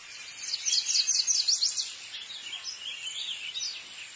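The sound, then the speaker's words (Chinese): A honeyguide bird chirps in quick, high-pitched twittering bursts as it flies through a dense forest in Africa, busiest in the first half and then continuing as lighter, scattered chirps. No voices are heard. “在非洲一片茂密的树林里，有一只小鸟叽叽喳喳地飞着。”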